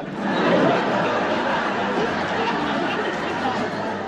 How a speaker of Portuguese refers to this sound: Outro destaque dessa série, que é uma das coisas mais impressionantes e que ajudou muito a alavancar o sucesso de Chaves no Brasil, foi a dublagem. A dublagem, aquela risada de fundo maravilhosa. Essa risada que você está ouvindo agora.